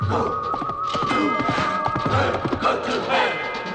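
Horse hooves gallop rapidly along a track, a steady drumming of loud hoofbeats over a busy, noisy background with what may be a horse whinnying.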